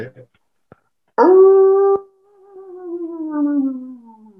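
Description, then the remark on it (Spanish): A voice imitates an ambulance siren winding down: a loud, steady wail that holds its pitch for a moment, then slowly sags lower and fades as if the siren is dying out. “Se le anda acabando la batería a la ambulancia”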